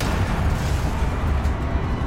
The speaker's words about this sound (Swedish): allt skakar till så kraftigt att människor och föremål kastas omkull samtidigt som en öronbedövande smäll tar vid. Smällen är så kraftig att du för ett ögonblick tror att byggnaden ska välta samman.